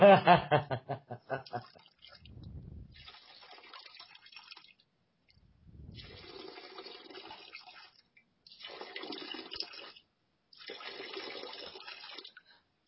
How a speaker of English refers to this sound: It sounds like an old man pissing, huh?